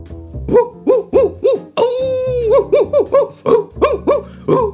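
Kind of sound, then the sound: animal, dog barking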